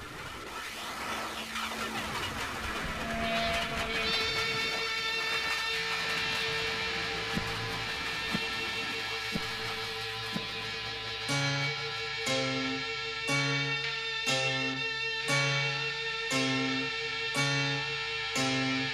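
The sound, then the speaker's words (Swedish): A train sound run through a swirling phaser effect sweeps and whooshes steadily, then sustained tones and rhythmic, punchy beats build in over it toward the end. No one speaks. “Där kommer det. Fasat tåg.”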